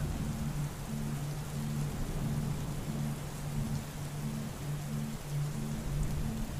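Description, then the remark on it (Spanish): Steady, dense rainfall hisses without a break, with a low rumble underneath like thunder. No voices, just the continuous wash of a summer storm. “Así que disfruta de esta tormenta de verano.”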